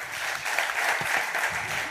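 A crowd at the RBB applauding steadily, dense crackling claps forming a continuous, even wash of sound at moderate loudness throughout, with no clear pauses or voices standing out.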